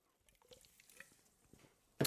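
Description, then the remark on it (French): A small sip of a drink: faint wet lip and tongue clicks with soft liquid sounds, ending in a brief, louder burst as the cup or swallow finishes. No one speaks. “Hop, petite gorgée de parier parce que sans porter, ça assèche la gorge.”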